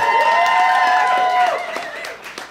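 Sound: audience applause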